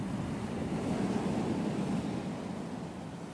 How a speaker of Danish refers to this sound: Da vi står ved Vesterhavet og mærker den her mystiske havenergi